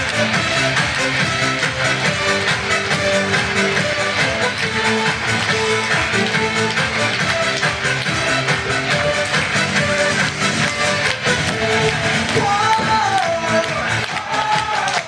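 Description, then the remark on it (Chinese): An audience applauds loudly and steadily for about fifteen seconds to encourage a speaker coming up to share, a dense wash of clapping blended with music playing underneath, with no talking. “来，掌声鼓励一下。”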